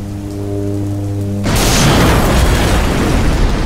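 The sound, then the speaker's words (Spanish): A low, steady droning hum gives way abruptly to a loud, dense wash of heavy rain that pours on without letup. “Dos horas después, en medio de la lluvia, cuando ya estaba por aterrizar”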